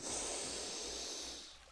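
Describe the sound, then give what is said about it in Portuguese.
A long, deep inhale drawn sharply through the nose, a steady airy rush lasting over a second before tapering off, with no talking; a deep breath taken during a guided relaxation exercise while lying down. “eu vou pedir agora que você faça uma respiração profunda, puxando pelo nariz”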